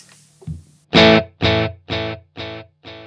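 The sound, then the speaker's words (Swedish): A single electric guitar chord played through an echo pedal set to its Mint mode, its bright, slightly gritty repeats bouncing back five times at an even, quick pace and gradually fading. No one speaks. “Vi hoppar ja. tillbaka till Mint.”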